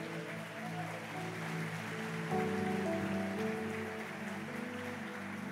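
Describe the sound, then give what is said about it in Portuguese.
A church audience applauds continuously for several seconds to celebrate its small-group (GC) leaders, hosts and supervisors: a dense, steady wash of clapping with sustained musical tones playing underneath and no one speaking. “Vamos, vamos aplaudir essa turma aqui.”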